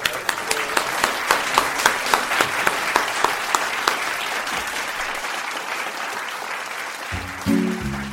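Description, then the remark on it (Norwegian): An audience at Litteraturhuset Fredrikstad claps steadily, a dense wash of many hands with a few sharper individual claps early on, fading slightly toward the end as a short musical tone enters. “Nei, men da må dere gi”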